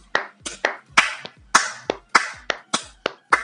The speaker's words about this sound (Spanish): Y yo escuché aplausos una vez más en el barrio de La Recoleta eh, escuché aplausos.